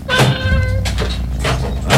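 A cat gives one loud, drawn-out meow over a steady low background rumble, followed by a few short, breathy rustling noises.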